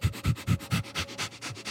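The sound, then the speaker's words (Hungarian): A dog sniffs rapidly from the side of someone sitting in a studio, a quick run of seven or eight short, breathy snuffles in steady rhythm, with no voices present. “Tudod, amikor itt ülök például a stúdióba egyedül, és egyszer csak így oldalról beszimatol egy kutya, akkor olyan furcsán érzem magam.”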